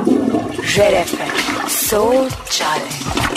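A loud, continuous toilet flush rushes and gurgles for a few seconds, with brief voice-like tones rising over the water noise.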